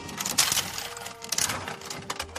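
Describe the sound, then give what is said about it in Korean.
A coin-operated toy capsule vending machine being cranked, a dense run of metallic clicks and ratcheting rattles with a few sharper clacks, steady and fairly quiet, no voices. “네, 바로 이 장난감 뽑기”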